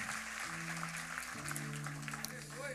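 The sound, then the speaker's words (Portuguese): A church audience claps steadily and densely for the whole stretch, applauding the Lord for the lives of their leaders, a continuous patter of many hands, while sustained low keyboard chords hold underneath and shift once partway through. “Você pode aplaudir o Senhor pela vida dos nossos, dos nossos líderes?”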